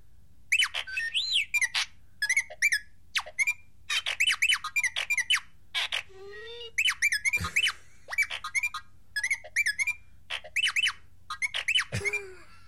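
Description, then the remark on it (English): Rapid bursts of robotic beeps and warbling whistles from the droid R2 chatter in quick, uneven phrases, bright, with a few sliding tones and no talking underneath. “So R two says.”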